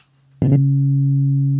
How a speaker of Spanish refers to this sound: si tú a un diapasón X, de la frecuencia que sea, lo, pones a resonar